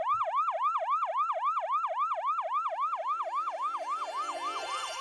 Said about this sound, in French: un son de New York qui serait resté dans tes oreilles Ah bah, les sirènes de pompiers sans aucune hésitation.